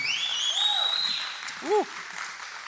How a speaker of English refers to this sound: That was some good worship, huh? Can we just give them one more round of applause? I love our worship team.